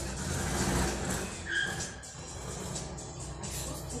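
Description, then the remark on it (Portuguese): A Volkswagen Beetle engine runs with a steady, rough low rumble, broken midway by a short high-pitched squeal before the motor settles back into its even drone. “Não é o Fusca. É o Fusca.”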